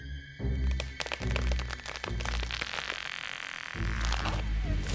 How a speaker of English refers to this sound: The dead tree, delicately adjusted to rest on the cut living one, crashed heavily to the earth, and I waited yet another moment, not daring to look up and see if it had really done its work.